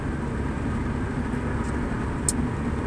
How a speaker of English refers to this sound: Damn, it's loud. Oh, hear that engine roar, you know?